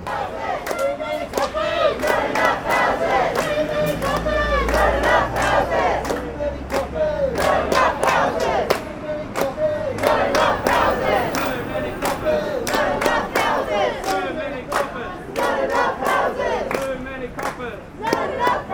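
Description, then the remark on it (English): A large protest crowd at a rally against forced evictions into homelessness, held by a renters' and housing union in Melbourne, Victoria, chants and cheers in unison, voices loud, with sharp rhythmic claps or thumps punctuating the chanting throughout. “You were listening to the issues raised by the Stop Forced Evictions to Homelessness rally by the Renters and Housing Union Victoria in Melbourne.”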